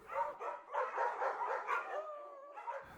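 A pack of laika sled dogs, ordered as 100 dogs for a South Pole expedition, barks and yelps together in a dense, overlapping chorus, fairly loud, with a drawn-out whine near the end. No one speaks.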